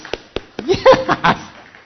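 A few sharp, scattered hand claps ring out, followed by a brief burst of voiced cheering or laughter, then the sound fades away.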